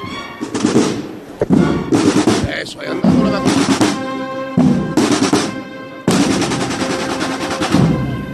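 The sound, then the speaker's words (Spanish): A procession band's snare drums play loud rolls in repeated bursts during a Holy Wednesday brotherhood procession in Nervión, each rattling phrase breaking off briefly before the next begins. “Así suena el redoble de un tambor de Rosario Cádiz y así un bombo.”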